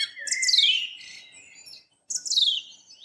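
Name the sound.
thrush singing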